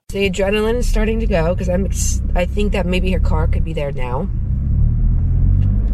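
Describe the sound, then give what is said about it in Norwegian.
A car engine rumbles steadily during a car chase, its deep low drone running the whole time, while a voice talks over it for the first few seconds before the engine carries on alone. “Men bare minner om da at neste uke er det biljakt, og jeg får lov til å være med på det hele også.”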